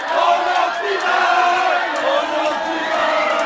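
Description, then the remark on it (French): A large crowd of French football fans cheers and shouts at the final whistle of a match against Morocco, a loud, continuous roar, many voices overlapping in a dense, steady wall of sound with no pauses. “Pendant que les Français exultent”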